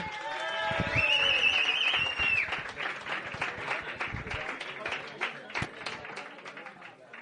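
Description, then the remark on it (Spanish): Sustained audience applause for a performer introduced to take the microphone, a dense steady patter of many hands clapping for several seconds, with a bright whistle and some cheering mixed in at the start before the clapping settles and continues. “Aplauso, por favor.”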